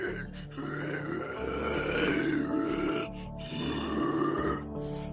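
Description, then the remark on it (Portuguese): A person voices two long, guttural grunts in a row, deep and raspy like a growling creature, loud with a brief pause between them. “Vocês ouviram, vocês vão chegar lá fora, vocês ouvem o grunhido.”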